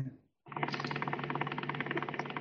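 A computer fan whirs loudly and steadily after a brief quiet start, a continuous mechanical hum with a faint rapid pulsing running through it.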